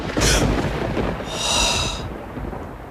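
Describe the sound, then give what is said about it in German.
A low, broad rumble of thunder rolls steadily through the whole clip, with a couple of brief hissing bursts above it and no voices present. “Also man, man zählt die Sekunden zwischen Blitz und Donner und die Zahl teilt man dann durch drei und ungefähr so viele Kilometer entfernt ist dann das Gewitter.”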